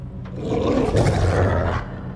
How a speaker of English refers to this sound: The group began to move, and an audible, deep growl echoed from the other side of the room.